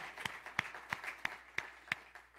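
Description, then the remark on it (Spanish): An audience gives an applause to the Lord for his word, clapping together in a steady, even rhythm of sharp beats about three per second, with a soft murmur of sound underneath and no clear talking. “No, un aplauso al Señor por su palabra.”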